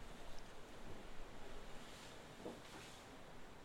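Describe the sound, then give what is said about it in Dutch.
Ocean waves wash steadily against rocks under a bright sun, a continuous hissing roar with gentle surges and a touch of wind, moderately loud, with no voices. “Hoor de golven tegen de rotsen slaan”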